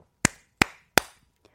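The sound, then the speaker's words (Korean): Three sharp hand claps on the Korean radio show Kang Han-na's Volume Up, given before introducing guests, evenly spaced about a third of a second apart, crisp, followed by a faint small tap. “아, 일단, 시원하게 박수 3번을 치고 소개할게요.”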